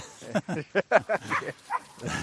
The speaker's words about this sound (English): This is a small black dog vocalizing and then chasing off a big white dog, who's very amused by this, and they're both enjoying themselves.